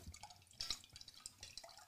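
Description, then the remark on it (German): Soft wet gurgles and small liquid clicks of someone drinking water, a brief louder gulp near the middle, with no talking. “Ich störe die Gluckergeräusche.”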